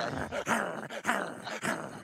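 A dog barks repeatedly in quick succession, about four rough, throaty barks with a slight growling edge and no voices.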